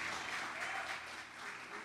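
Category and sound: crowd, audience applause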